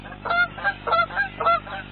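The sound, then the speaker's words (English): Canada geese honking repeatedly, about five or six nasal calls in quick succession, clear with no voices over them. “Canada geese.”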